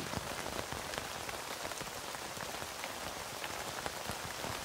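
Steady rain pattering on a tent, a dense hiss of countless drops with scattered sharper taps, constant and even in loudness throughout, with no voices.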